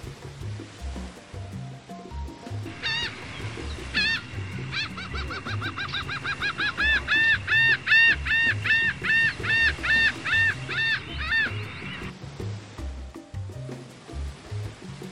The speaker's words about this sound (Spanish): Qué curioso. Allá arriba hay una bandada de gaviotas. Míralas volando.